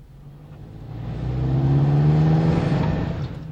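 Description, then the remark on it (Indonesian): A car engine drones steadily as the car is being test-driven, its pitch climbing and swelling louder as it revs up midway, then easing slightly near the end; no voices. “Saudara pendengar, mari kita kembali pada teman-teman kita yang sedang mencoba mobil tadi.”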